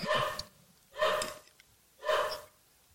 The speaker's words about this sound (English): So just gonna roll through the dog barking. I think you can hear it back there.